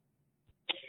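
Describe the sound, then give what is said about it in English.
A single sharp sneeze bursts out after a short quiet catch of breath, then trails off in a breathy hiss. It is fairly loud, with no talking. “God I, bless you.”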